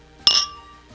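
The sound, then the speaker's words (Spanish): A single bright clink of glasses touching in a toast, sharp, ringing briefly before fading into quiet room tone. “Salud.”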